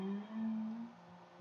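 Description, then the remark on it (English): A single voice hums one steady, low note, holding it for about a second before it softens and trails away. No words are spoken. “Hum, sigh.”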